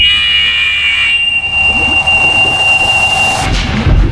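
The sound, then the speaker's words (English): A loud, piercing sonic blast effect, a 210-decibel burst of sound erupting from the aft of a ship near the ocean floor to disrupt the guidance of two torpedoes: a steady, shrill electronic tone that holds for several seconds over a low rumble, shifting abruptly near the end. “A monstrous 210 decibel burst of sound erupted from the aft of Guardian 1, shattering the guidance control of the torpedoes and sending Guardian 2 swimming in spirals, bouncing off the underwater cliff walls.”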